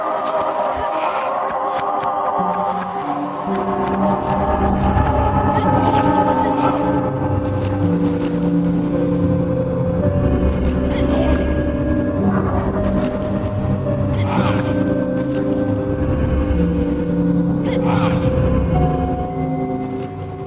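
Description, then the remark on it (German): Battle music and sounds from a fight in the video game Ico: a deep, rumbling drone with growling, roar-like tones and sustained pitches, broken by sharp hits every few seconds. Loud and steady throughout, with no talking. “Wir können uns das ja einmal kurz anhören, wie so ein Kampf bei Ico klingt.”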